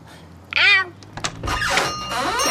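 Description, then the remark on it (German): A shop door creaks open, a short high squeak followed by a thunk, then a longer grinding creak as it swings, fairly loud with no talking. “Sie kommt, sie eilt zur Türe.”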